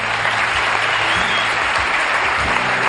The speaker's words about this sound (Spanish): Oye, un aplauso a Javi Cansado que se tiene que marchar.